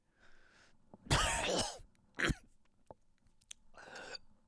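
A harsh, raspy cough bursts out up close, followed by a shorter second cough, with strained breathy sounds and a pained exhale around them; no one speaks.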